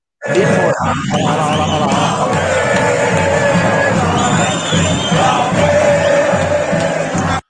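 A loud, dense crowd of happy football fans cheering and shouting continuously outside the stadium, in front of Porcolândia, many voices blending into a sustained roar with occasional louder yells rising above it.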